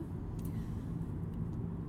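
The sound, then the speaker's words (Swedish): A steady, muffled low-frequency rumble inside a moving car in the early morning, constant and even throughout with faint higher hiss and a couple of brief soft clicks. “Att så här, sitta lite random och prata i en telefon när vi åker bil.”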